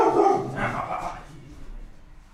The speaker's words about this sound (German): Die Katze wollte euch die ganze Zeit bereits darauf hinweisen, dass mein Hund in der Nähe ist, falls ihr Geräusche im Hintergrund hört.